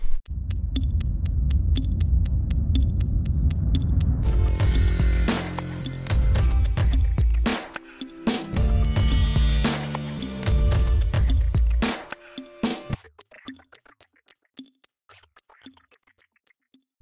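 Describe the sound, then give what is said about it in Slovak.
A loud electronic intro jingle with a throbbing, humming bass and sharp rhythmic hits, briefly cutting out twice before thinning into sparse, quiet ticks at the end. No one speaks. “Dajme už tú zvučku.”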